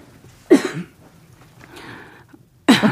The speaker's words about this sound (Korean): 제가 기침이 나